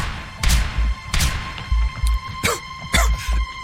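Several muffled, booming blasts go off in quick succession, each a dull thud with a short burst of hiss, loud, with no voices. Three muffled explosions of gas grenades releasing smoke.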